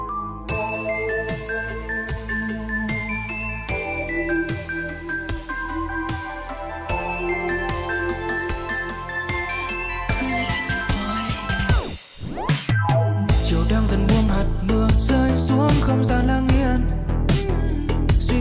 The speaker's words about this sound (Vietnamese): có một bài hát mà gần đây thao túng các bạn trẻ anh ạ